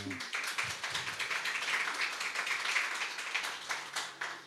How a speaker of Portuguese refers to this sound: Uma salva de palmas aqui para a nossa.